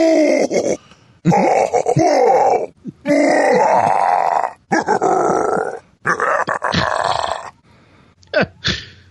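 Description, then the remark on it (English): A series of loud, gravelly grunts and growls of Bowser from Super Mario, played in a web browser, in short bursts separated by brief pauses, with a couple of quick snarls at the end and no speech. “And here come the Bowser sayings.”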